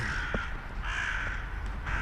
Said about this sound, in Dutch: Want dat was net een kraai.